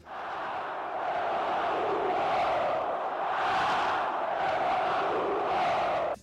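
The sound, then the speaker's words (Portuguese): A large stadium crowd of Flamengo football supporters chants in unison at the Maracanã, a dense roar with rhythmic swells rising and falling for several seconds, loud and sustained, with no single voice standing out. “E tinha aquela, aquela parada lá que a torcida do Flamengo, quando lançou na época, ah, eu sou maluco, eu tô maluco.”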